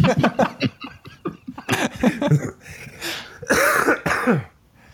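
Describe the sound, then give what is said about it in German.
A person coughs several times, fairly loud, with harsh throaty bursts and some throat clearing mixed with breathy, laugh-like sounds, ending in a quiet pause. “da, da muss der husten.”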